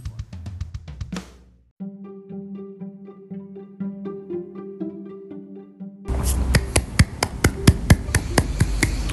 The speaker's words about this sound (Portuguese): Então ouvindo isso? É o barulho das palmas, porque realmente quando esse filme terminou eu fiquei de pé, bati palmas e comemorei porque é um filme maravilhoso